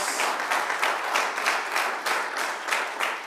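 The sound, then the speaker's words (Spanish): A church audience claps hands in praise to the King (God) in a steady, brisk rhythm, the many claps merging into a loud, even beat with no voices heard. “Aleluya, dele palmas al Rey.”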